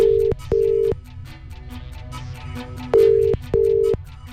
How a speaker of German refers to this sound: Telefon klingelt.